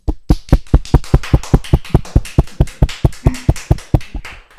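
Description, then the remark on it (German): A small group claps together in a quick, steady rhythm as thanks on behalf of all grateful parents, roughly twenty sharp claps at an even pace, fairly loud and without voices, trailing off at the end. “Und wir sind zwar hier nur wenig, aber wir dürfen stellvertretend für alle dankbaren Eltern kurz für dich klatschen.”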